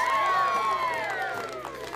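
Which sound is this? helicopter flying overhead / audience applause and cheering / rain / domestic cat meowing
audience applause and cheering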